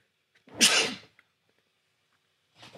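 A loud, harsh cough bursts out for about half a second, followed after a pause by a softer second cough at the end. No one speaks.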